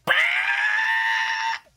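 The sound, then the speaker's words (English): A person lets out one loud, piercing screech in imitation of a creature, held steady and shrill for about a second and a half before cutting off, alone. “You screech.”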